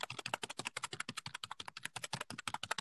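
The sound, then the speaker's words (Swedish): Rapid, steady keyboard clicking fills the moment, dozens of crisp keystrokes in quick succession, clear with no voices over it. “Och vänta, tangentbord.”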